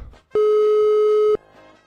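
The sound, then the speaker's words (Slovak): A single steady telephone line tone at the start of a survey phone call made on New Year's Eve sounds loudly for about a second, a flat electronic hum with a bright overtone, then cuts off abruptly into quiet background. “Takto znel telefonát na Silvestra, ktorý keď sa vyhodil na TikTok a sociálne siete, tak za deň ho videlo vyše 200 tisíc ľudí.”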